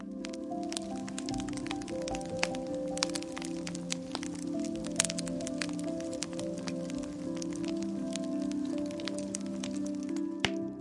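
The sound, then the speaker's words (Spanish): Faint, sharp snaps like a stretched rubber band breaking pop out irregularly, dozens of them scattered over a steady low humming drone, with no voices; the sound of a silkworm bursting inside a biscuit tin. “En ese preciso momento se oyó un chasquido, un ruido débil como de una goma que se estira hasta romperse.”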